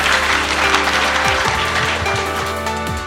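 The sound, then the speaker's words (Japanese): An audience at a Suminoe Textile investor-relations seminar applauds steadily for a few seconds, the dense clapping loud and continuous from start to finish, with faint tonal sounds beneath it and no voices. “皆さんもう一度大きな拍手をお願いいたしますどうもありがとうございました”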